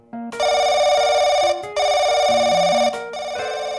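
A telephone rings loudly in two long bursts with a brief gap, a bright electronic warble with stacked tones, clear with no one talking over it.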